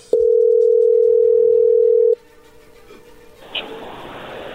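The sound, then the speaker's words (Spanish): A telephone call rings through on the line: one loud, steady electronic ring tone lasting about two seconds, followed by a quieter stretch of line hiss and faint noise. “A ver, ya entró ahí la llamada, no haga ruido.”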